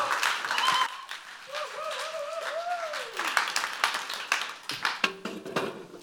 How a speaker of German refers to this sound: Herzlichen Applaus